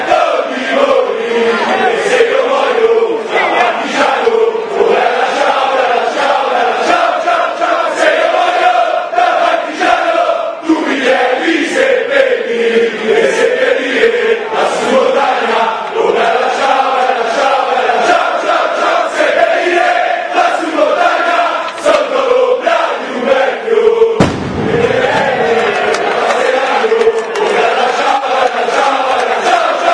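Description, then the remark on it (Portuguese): A massive crowd of Livorno football supporters chants Bella Ciao in unison, a loud, sustained melodic singing that rolls on without pause, with a brief dip in the roar about two-thirds of the way through. “O Som das Torcidas #50 TOP 10”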